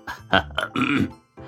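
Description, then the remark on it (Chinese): A voice imitates a couple of gruff coughs from outside a door: short, rough, voiced bursts with a throaty grunt-like quality, fairly loud, followed by a briefer trailing vocal sound. “门外咳嗽两声”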